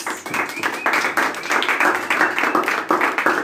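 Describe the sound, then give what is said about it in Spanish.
An audience applauds the girls steadily, many hands clapping in a dense, continuous patter at an even loudness throughout, with no voices standing out. “Bueno, les voy a pedir un aplauso para las chicas.”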